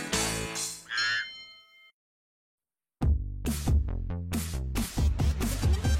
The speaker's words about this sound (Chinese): 来听听看我的声音吧。我的歌声真美妙，聪明的小朋友猜对了吗？我就是青蛙。